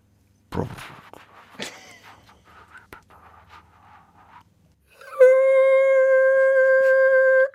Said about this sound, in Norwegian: Gammelt kaffetrakt dette her som du ja, kjente på kjelen. Ja, det var veldig gammelt.